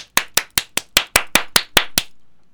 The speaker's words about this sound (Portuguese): palmas, não, mas é que essas palmas mais tá parecendo aquela palma na frente de casa.